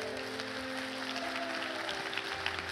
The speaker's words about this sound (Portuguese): Você pode aplaudir o Senhor aqui, igreja.